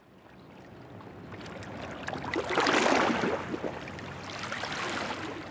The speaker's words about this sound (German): Bari an einem Winterabend. An der Uferpromenade schlagen die Wellen an die Kähmauer. Die Temperaturen sind auch zu dieser Jahreszeit noch immer mild in Apulien.